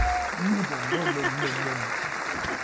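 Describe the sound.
Steady audience applause fills the whole stretch, a dense even crackle of clapping welcoming a presenter, with a voice rising over it partway through.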